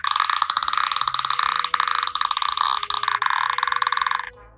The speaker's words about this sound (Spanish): Se llama Cansamama, es un instrumento del norte de Brasil y se usa así, mira.